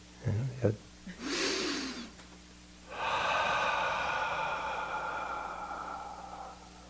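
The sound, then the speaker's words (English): Loud breathing demonstrating breathing meditation: a couple of quick snorting nasal sounds, a sharp rushing inhale, then a long, steady, hissing exhale that carries on to the end. “So I kind of looked at him and he said, breathing meditation should feel like this.”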